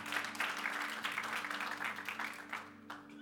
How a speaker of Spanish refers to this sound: Dele ese aplauso fuerte a Cristo porque Él es maravilloso.